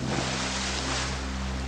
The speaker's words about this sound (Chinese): 流水扑面而来，像奔腾的公牛冲向他，挤出肺里的空气，驱赶脑中的意识，将他吞入冰冷的黑暗。